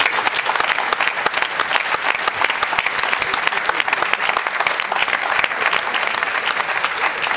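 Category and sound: crowd, studio audience applause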